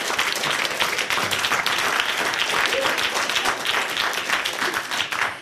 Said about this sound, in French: on peut l'applaudir